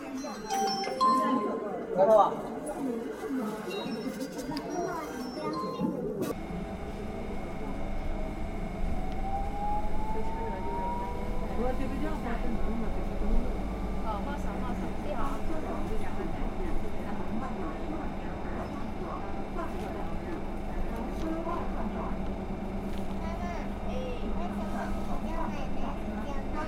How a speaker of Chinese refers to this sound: 走，先去听一听那辆带着你身体摇晃的公交车。